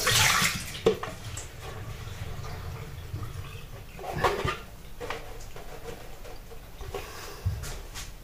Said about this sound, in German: Jetzt Wasser aufkippen.